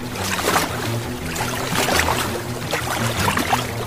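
Steady sloshing and splashing water from someone jumping into a river and swimming, with repeated churning bursts over a constant watery wash and low rumble, fairly loud and without any talking.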